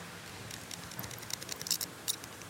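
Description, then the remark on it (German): Fresh asparagus spears rubbed together, giving a quick series of faint, short squeaks and scratchy creaks with no talking. “Das konnte man jetzt hören, ne? Frischer Spargel soll immer quietschen.”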